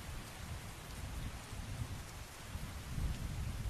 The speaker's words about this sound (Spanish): flotamos entre la niebla entre la tormenta y entre la lluvia para ver cómo el cuerpo de ese hombre se precipita hacia las rocas afiladas del fondo, hacia ese mar completamente embravecido por la tormenta, hacia la niebla que se mezclaba con las olas.